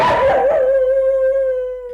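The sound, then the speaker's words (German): A neighbour's dog howls at 3 a.m. in one long, sustained wail that starts rough and noisy, then settles into a steady tone with clear harmonics, slowly fading toward the end. No one speaks. “Und auch Nachbars Töle ist schon wieder am Jaulen.”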